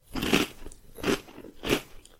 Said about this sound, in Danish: Men hvis lyden er kraftig nok, så kan den faktisk også gå igennem knoglen i stedet for. Og man kan teste det ved, hvis I prøver at spise cornflakes om morgenen og knaser.